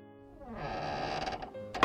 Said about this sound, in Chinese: 吱呀一声，房间的门开了，而伴随着这门开的声音。